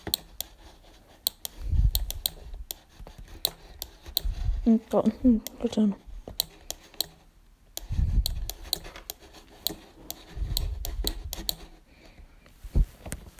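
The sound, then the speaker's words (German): Pens being switched: a marker's cap clicks, then sharp taps and scratchy strokes come in irregular bursts across the paper as someone draws without looking, with a brief murmur of speech partway through. “Kurz den Stift wechseln, dann wird hier.”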